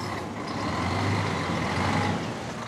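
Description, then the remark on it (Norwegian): A heavy rail-replacement bus, running instead of trains this summer, idles and rumbles steadily, with a brief hiss of air brakes amid the continuous low mechanical drone. No one speaks. “Det blir ikke så ofte du får høre lyden av tog denne sommeren. I stedet må du regne med dette.”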